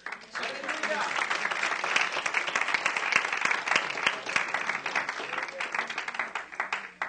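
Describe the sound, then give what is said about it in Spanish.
A church audience breaks into sustained applause for the Holy Spirit, a dense wash of many hands clapping steadily for several seconds, with a few voices audible underneath before it tapers near the end. “Entonces demos un aplauso al Espíritu Santo.”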